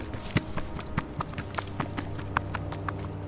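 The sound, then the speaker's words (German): Quick, rhythmic footsteps patter along at a steady pace as someone scurries quickly away, roughly three steps per second, at moderate loudness over a faint continuous background hum, with no voices. “Ihr hört ein Rascheln und dann Schritte, die schnell von euch weghuschen.”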